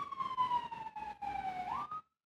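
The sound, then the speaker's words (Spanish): An ambulance siren wails outside with a steady, piercing tone that slowly sinks in pitch as it passes, then swoops back up before cutting off abruptly. “Esperemos que todo esté bien en esa ambulancia y que vayan escuchando el programa.”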